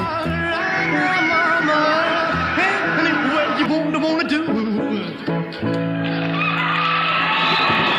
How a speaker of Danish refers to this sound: Men, men det er så vildt den her aften, mm-hmm. at mhm. publikum faktisk øh, skriger til ham, og måske mere pigerne forestiller jeg mig, shake some more.